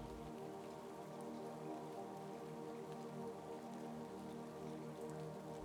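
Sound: rain falling and dripping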